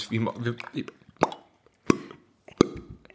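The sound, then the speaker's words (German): Three sharp, hollow pops made by putting a finger in the mouth, imitating a cork popping, spaced about a second apart after a brief stretch of speech; fairly loud. “Na, du musst den Finger, also man macht eine, heutzutage, ich sage aus der Zeit vor Covid und Co., wo man auch gerne mal schmutzige Finger haben konnte, dann nahm man den Finger in den Mund und macht dann so”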